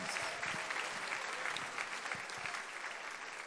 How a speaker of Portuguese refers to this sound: Você pode aplaudir esse ganhador de alma que está do seu lado aí, que ele vai sair daqui turbinado para ganhar almas.